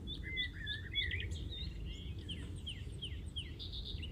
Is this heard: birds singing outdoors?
yes